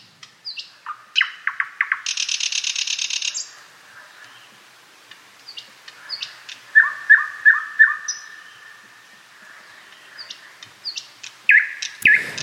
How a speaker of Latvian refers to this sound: Savukārt eh, šī ir slavenā lakstīgala. Viens no skanīgākajiem Latvijā dzīvojošajiem putniem.